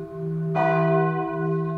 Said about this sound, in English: As I entered the limits, I was greeted by screeching whistles and ringing of bells from all parts of the city.